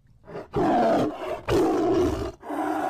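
A tiger roars loudly in three deep, rasping bursts, the first two long and powerful, the last trailing off into a lower growl. No one speaks.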